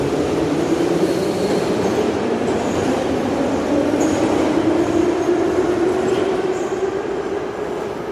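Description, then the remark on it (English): A rocking train carriage rolls steadily along on steel wheels, a continuous rumble with a humming drone and faint, intermittent metallic squeals, no voices present. “The rocking carriage and the train's steel wheels croon a metallic lullaby.”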